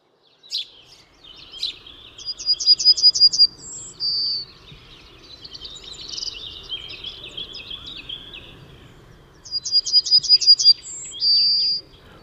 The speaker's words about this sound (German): Und Goldammer schließt uns ihr Herz und sagt, wie, wie, wie, wie, habe ich dich so lieb? Ja, Goldammer ist wirklich sehr ein attraktiver Vogel. Man könnte fast äh, das Gefühl haben, die kommt in den Tropen vor, so gelb wie sie ist.